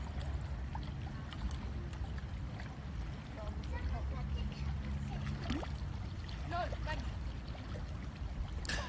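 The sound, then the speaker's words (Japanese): Ocean waves wash steadily in a continuous low roar, mixed with gusty wind noise outdoors at a windswept spot with no buildings, on a cold day of about 15 degrees, with a few faint, indistinct voices in the background. “風もあるし、で、ここはあの建物がないのでやっぱりあのすごく吹きさらしなんでね風があるのでちょっと寒いですあ波の音聞こえるって聞こえますか”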